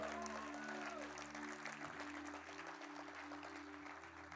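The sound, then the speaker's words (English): A large church audience applauds the worship team steadily, a dense wash of clapping, with a sustained low organ or keyboard tone humming underneath throughout. “give them all a big old clap, our worship team.”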